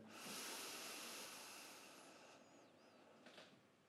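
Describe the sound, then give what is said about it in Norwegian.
A slow breath in through the nose and out through the mouth, the exhale longer than the inhale, a soft broad airy hiss that swells and gradually fades over a few seconds, quiet with no talking. “Og du skal bruke litt lengre tid på å puste ut gjennom munnen enn du puster inn gjennom nesen.”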